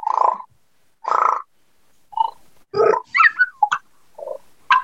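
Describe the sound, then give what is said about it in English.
A voice imitates animal calls: several short, throaty bursts, then a thin whine that slides up and down in pitch midway, followed by a few more brief calls, with no talking. “I said that's the whine that we learned earlier.”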